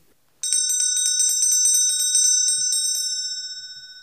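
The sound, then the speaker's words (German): A bright metallic bell rings rapidly and repeatedly for about two and a half seconds, loud, signalling the lunch break, then its tone lingers and slowly fades out. No voices. “Die Glocke läutete zur Mittagspause.”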